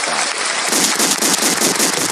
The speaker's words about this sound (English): Um, oh, we call that the standing ovation.